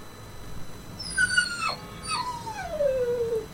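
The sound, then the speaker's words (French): A French bulldog whimpers: a short high whine, then a longer one that slides steadily downward in pitch, with no voices and only faint background noise. “avait reçu en cadeau un bulldog français.”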